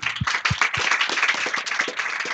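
An audience bursts into applause, dense overlapping claps forming a steady, loud crackling wash, with a few heavier low thumps at the start.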